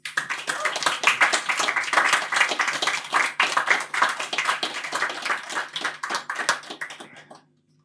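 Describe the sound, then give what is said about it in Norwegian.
An audience breaks into steady, lively applause for an author presenting the poetry collection 'Ta på Jesus', many hands clapping in a dense patter that holds strong for several seconds before quickly tapering off to silence. “Gi en varm applaus til Gunnar Ernes.”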